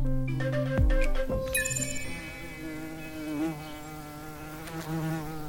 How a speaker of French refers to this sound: Alors, tu vas sauter sur cette mouche